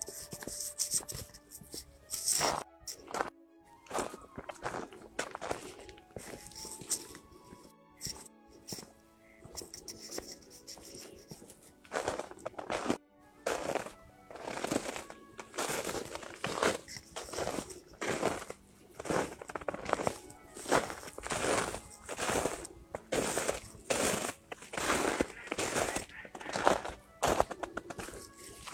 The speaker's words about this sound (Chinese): 听到了吗？很不一样的脚踩在雪地上的声音吧。